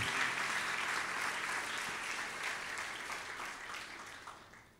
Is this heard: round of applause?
yes